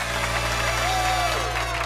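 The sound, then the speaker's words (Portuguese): Steady audience applause for two contestants on a quiz show hosted by O Sabichão, a dense wash of many hands clapping at constant loudness for the whole moment, with faint cheers or whistles rising briefly in the middle and a low hum underneath. “Uma salva de palmas para eles!”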